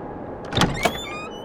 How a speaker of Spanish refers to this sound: Se abre la puerta